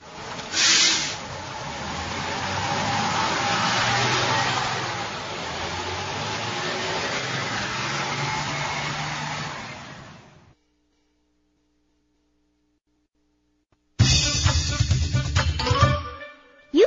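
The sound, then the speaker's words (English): A bus lets out a long, loud hiss of air brakes for about ten seconds, falls silent, then rumbles and rattles again near the end. “You can go in a bus.”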